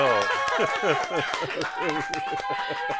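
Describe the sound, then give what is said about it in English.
Control room staff applaud a guest mid-interview, a small group clapping in a scattered, steady round of applause lasting a few seconds, with voices and laughter running over the clapping the whole time. “Oh, a control room round of applause.”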